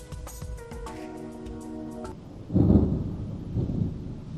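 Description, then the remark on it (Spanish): A deep roll of thunder swells after a couple of seconds, low and rumbling, following a brief sustained tonal hum; the rumble lingers and fades unevenly toward the end. “Ahí llegó el trueno.”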